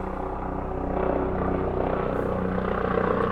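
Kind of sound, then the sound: vehicle, police helicopter flying overhead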